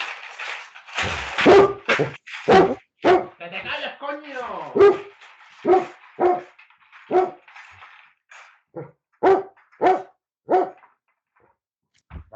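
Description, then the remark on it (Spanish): A dog barks loudly, about a dozen sharp barks in an uneven rhythm, with a brief whining yelp partway through, before falling quiet. “A ver si ladra el perro.”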